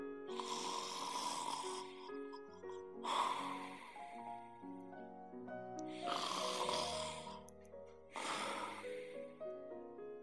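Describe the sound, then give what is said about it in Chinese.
An old woman snores loudly four times in a slow, steady rhythm, each rasping inhale lasting a couple of seconds, with a soft sustained tonal hum underneath and no talking. “小孩在打鼾的老奶奶身上，老奶奶在温暖的床上，床在打瞌睡的房子里，房子里每个人都在睡觉。”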